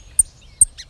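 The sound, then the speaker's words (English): A sparrow gives sharp, high alarm notes warning of danger: two bright chips about 0.4 seconds apart, followed by a softer, buzzier call, clear with no talking. “and that's alarm.”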